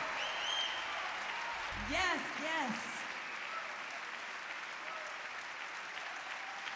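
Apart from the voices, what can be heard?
audience applause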